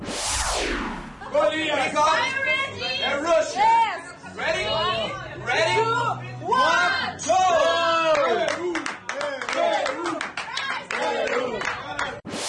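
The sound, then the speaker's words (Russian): A crowd of football fans in a bar in Moscow during a World Cup match cheers and shouts, many voices overlapping in loud, excited bursts with scattered clapping, keeping up a dense roar across the whole stretch. “А, более того, корреспонденты не просто так прошлись, а еще и шум болельщиков они записывали.”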